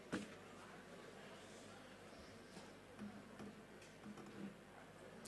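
A clock ticks quietly and steadily at a slow, even pace over a faint low background hum, with no one speaking.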